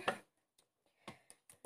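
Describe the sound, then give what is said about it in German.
Several sharp computer mouse clicks in an irregular rhythm, made while clicking to start a Murder Mystery game. One louder click comes at the start, followed by quicker taps, with quiet gaps between and no talking. “So, auf Spielen klicken.”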